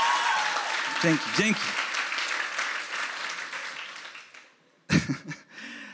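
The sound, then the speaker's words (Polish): An audience at a service in Kościół Echo church claps together in a dense, steady burst of applause that fades out after a few seconds, while a voice briefly speaks over it and again once it stops. “Że jeśli jedno słowo klaszcze, wszyscy pomagają, żeby jej nie było głupio, ok?”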